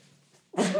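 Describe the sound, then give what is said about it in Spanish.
A single loud sneeze bursts out abruptly after a moment of near silence, a sharp explosive blast that trails off briefly. “Salud.”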